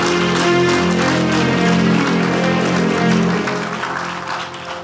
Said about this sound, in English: Clap your hands and bless God. Clap your hands. I can feel your clap. I can feel your clap.